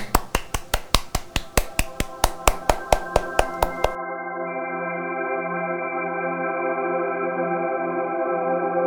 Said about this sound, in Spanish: Dadme vuestro aplauso si os ha gustado.